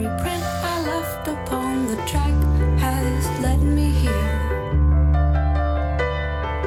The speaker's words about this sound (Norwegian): det er lyden av det som ble kåret til 2020s beste album av musikknettstedet Pitchfork